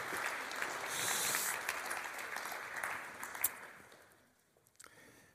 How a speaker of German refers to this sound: Ein Applaus für Sie, ja?